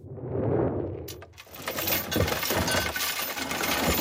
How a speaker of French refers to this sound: Nous sommes le 26 mai 1755 et ce que vous entendez là, c'est la mise à mort de Louis Mandrin sur la place des Clercs de Valence devant 6000 curieux, mandrin et roué.